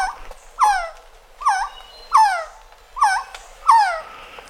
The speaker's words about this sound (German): Hat auch eine sehr schöne Stimme, gehört zu den zur Familie der Trogone.